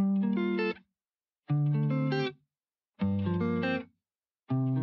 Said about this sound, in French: Ensuite, pour euh, répondre à ces notes de musique, j'ai euh, décidé d'aller chercher un sample de guitare.